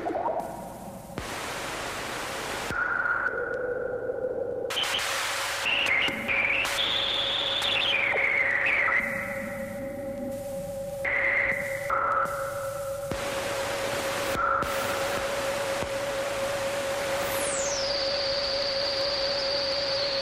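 Experimental electronic synthesizer sounds: a steady droning tone under bursts of hissing noise, warbling pitch glides, and a rising then falling sweep near the end, continuous and fairly loud, with no voices.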